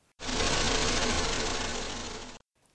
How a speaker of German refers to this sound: Natürlich geht so ein berühmter Forscher und Erfinder nicht einfach in den Garten hinaus, sondern er schnurrt mit dem Forschermobil direkt in den Frühling hinein.